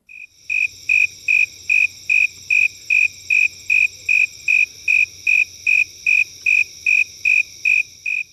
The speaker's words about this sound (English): Um, but let's, why don't we listen to the snowy tree cricket?